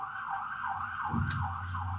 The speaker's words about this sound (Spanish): Está pasando una ambulancia, es normal aquí.